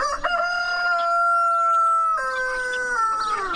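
A rooster crows in two long, sustained harmonic stretches, the second slightly higher and wavering as it trails off, loud and clear with no talking.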